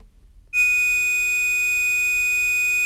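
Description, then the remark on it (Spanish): A steady, high-pitched pure sine tone, played as part of a sound wave experiment, switches on abruptly after a brief silence and holds at a constant, fairly loud level until the end, with no voices or other sounds. “Es una onda pura, es un sonido perfecto y su frecuencia es la que marca su tono.”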